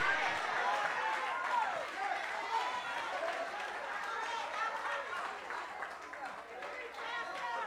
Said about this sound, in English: You might have caught hell doing it, but the fact that you're sitting up in here today, clapping your sanctified coronavirus hands, you can give God glory and praise and say, I got the victory.